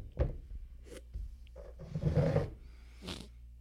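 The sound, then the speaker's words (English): Beer glugs and splashes into glasses in a few short uneven bursts with a frothy rush in the middle, no voices present. “So why are you pouring the more little schluck into mine?”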